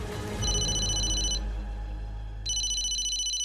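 A telephone rings in two bright, trilling bursts separated by a pause of about a second, fairly loud, over a steady low background hum with no one speaking.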